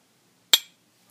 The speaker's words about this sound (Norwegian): Skal vi skåle med kaffekoppene? Å, den var varm. Ja, den er veldig varm.